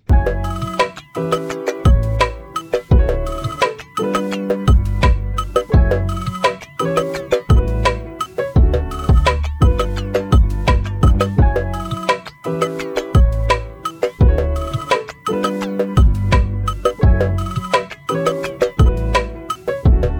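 A phone ringtone plays loudly and without a break for about twenty seconds, a bright melodic pattern repeating over and over with no one speaking, as a call is placed to a listener.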